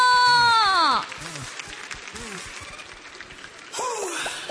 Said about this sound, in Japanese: えここ岡山に登場してくださるゲストの方に早速ご登壇いただきましょう皆さんどうぞ大きな拍手でお迎えください … そして … の立花健一さんですどうぞ